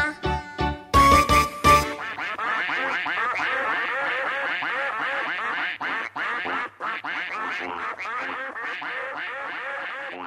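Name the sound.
duck quacking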